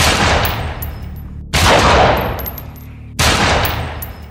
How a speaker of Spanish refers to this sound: Esto después de pegarle tres tiros